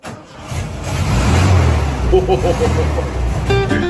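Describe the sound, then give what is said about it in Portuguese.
The 1600 cc engine of a 1982 Volkswagen Fusca turns over and settles into a loud, steady running rumble, with brief snatches of voice over the motor near the end. “Vamos ouvir o motorzão de novo? Isso aqui é 1.600 só, quer ver?”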